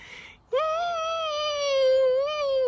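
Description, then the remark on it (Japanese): A member of a TV studio's tiered panel imitates a whimpering puppy with one long, high-pitched nasal whine, held steadily for about two seconds and lifting slightly near the end, fairly loud with no talking. “みたいな、子犬みたいな声出てたメンバーいましたね。”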